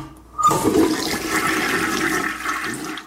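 A toilet flushes with a sudden rushing whoosh of water that stays loud and steady for a few seconds before starting to fade. No one speaks.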